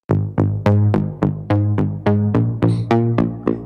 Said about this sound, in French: Donc c'est un son de synthé, comme vous avez pu le remarquer et vous allez voir que il va le passer dans le truc. Ça c'est la version sèche.